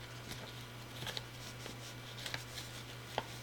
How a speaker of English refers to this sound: Oh, it's deep. This scoop is deep down in here. It's buried. It's contents settled during shipping. I'm using a pencil to try and fish it out.